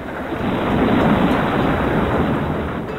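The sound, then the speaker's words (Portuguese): A deep, continuous rumble of thunder swells and slowly fades, broad and noisy with a windy, storm-like texture and no voices. “Trovões, vento, grilos e sapos pássaros, hienas, elefantes, macacos.”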